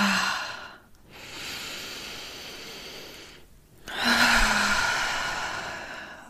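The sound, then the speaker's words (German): A natural breath flow: a slow, deep breath drawn in through the nose down into the belly, a brief pause, then a long, audible exhale through the mouth with a faint voiced sigh, steady and breathy with no talking. “So klingt ein natürlicher Atemfluss.”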